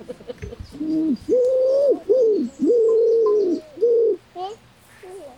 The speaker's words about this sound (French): Ah, c'est un oiseau qui a une petite écharpe blanche de plume autour du cou. La palombe.